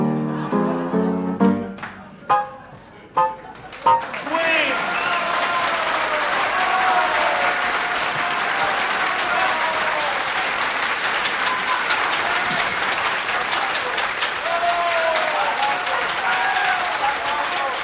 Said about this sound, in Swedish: Da capo hör man någon ja. skrika.